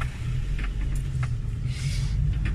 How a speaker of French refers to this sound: Et là je viens de voir qu'il y a une voiture qui descendait. Alors il faut que je mette de côté, pour que je laisse passer, sinon on ne passe pas.